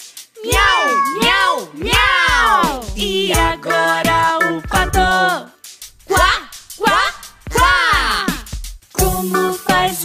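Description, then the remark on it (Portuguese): Children's voices imitate a cat, giving a string of loud, drawn-out meows one after another, with rising and falling pitch and a few sustained sung notes in between. “Toda a turminha do Aquarela Kids imitando os animais. Como que faz o gato?”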